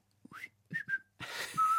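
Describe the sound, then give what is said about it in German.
A few short, breathy whistled notes, rising and then holding steady, with a fuller whistle at the end, fairly quiet, with no talking. “so vor sich hin pfeift.”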